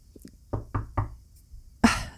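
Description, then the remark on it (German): A rapid series of knocks on wood, three crisp raps close together followed by a slightly louder final knock, with no talking. “Ja, yeah, Freunde, klopft auf Holz, das ist wichtig.”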